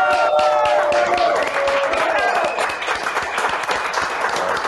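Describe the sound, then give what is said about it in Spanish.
Sustained audience applause on the show Chisme No Like in Mexico, honoring Mexican show-business figures at the end of its run there: a dense, steady patter of many hands clapping at full volume throughout, with faint cheering tones rising briefly near the start. “Así que los queremos reconocer con este aplauso y a todo México que nos recibió 15 días.”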